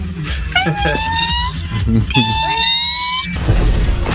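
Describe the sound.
A child vocally imitates the Iron Man power-up sound effect: two rising, whistling whines, each swelling for about a second before cutting off, fairly loud against light background noise.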